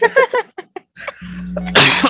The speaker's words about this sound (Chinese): 哎，我现在一直在咳嗽跟擤鼻涕，是因为我们现在是早上的时机在录录音